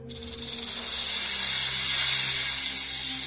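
A snake hisses in one long, steady breathy rush lasting about three seconds, fairly loud, with a faint low hum underneath and no voices.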